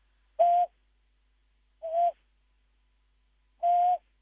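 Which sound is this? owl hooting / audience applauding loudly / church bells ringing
owl hooting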